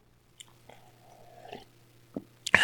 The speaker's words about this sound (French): Alors, je prends une petite gorgée d'eau.